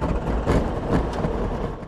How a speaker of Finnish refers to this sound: Kone on varustettu 80 hevosvoiman Rotax-merkkisellä moottorilla, jonka käynnistysääni muistuttaa lähinnä